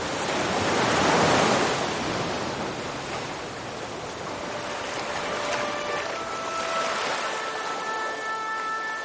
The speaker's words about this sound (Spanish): ¿Te parece si te dejo con el impresionante sonido del Cantábrico? Porque digo yo que si puedes escucharme a mí, también puedes escucharlo, ¿no?